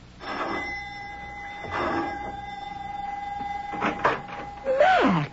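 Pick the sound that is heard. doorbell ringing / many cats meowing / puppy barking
doorbell ringing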